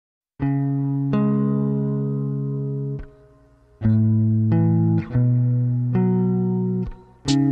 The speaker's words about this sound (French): comme je le disais, on va s'écouter le morceau …. On s'écoute ça tout de suite.